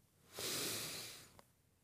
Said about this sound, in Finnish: Otetaan nyt kaikki yhdessä hengitys sisään.